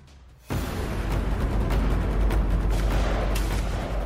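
After a brief quiet moment, a loud roar of combat erupts and continues: heavy explosions of grenades thrown by marines into boats, mixed with bursts of gunfire, dense, with sharper blasts punching through the constant rumble.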